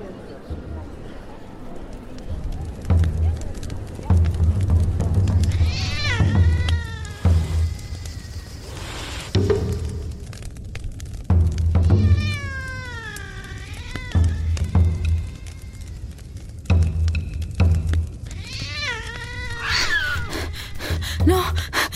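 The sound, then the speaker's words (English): A black cat meows several times in long, wavering cries spaced a few seconds apart, fairly loud, over a steady low rumbling background. “Here goes the black cat, created by Mauricio Vallese.”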